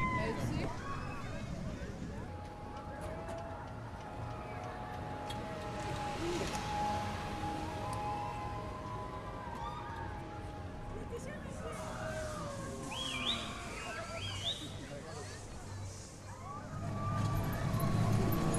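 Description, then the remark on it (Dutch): An indoor amusement park car ride starts and the vehicle rolls forward under a steady low rumble, with layered soundtrack tones, mechanical whirring and crowd hubbub around it. “Alright, en we zijn gestart in ons ritje.”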